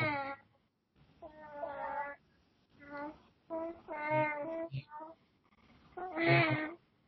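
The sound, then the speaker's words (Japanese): A cat meows repeatedly, about five or six drawn-out, wavering cries with short pauses between them, fairly loud, with no talking. “何の時の泣き声や、これは。”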